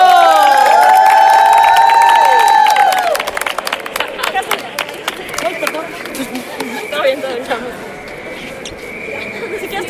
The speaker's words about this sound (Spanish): Pero fue una gran jugada que todas aplaudimos.